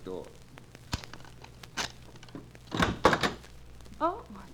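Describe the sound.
Several solid knocks on a hotel room door, a couple spaced apart and then a quicker cluster, fairly loud, with a brief voice murmur at the start and end over a low steady hum.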